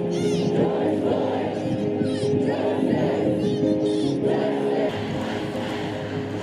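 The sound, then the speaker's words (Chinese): A large protest crowd of people dressed in black and wearing masks, holding signs and megaphones, shouting slogans together, a dense roar of many raised voices with rhythmic chanted bursts, loud and continuous throughout. “他们手里拿着牌子和喇叭。并且高声地喊着口号。”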